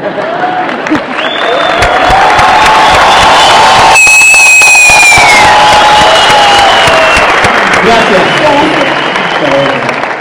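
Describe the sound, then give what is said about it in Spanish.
A large audience applauds and cheers louder on request while being filmed for a video, with high-pitched whoops and shouts rising above the sustained clapping, swelling briefly in the middle before continuing at full volume. “aplauso más fuerte que va a tirar un video, dice.”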